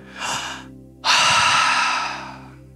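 An audible deep breath: a short airy inhale, a brief pause, then a long, loud, rushing exhale that slowly fades. No one speaks.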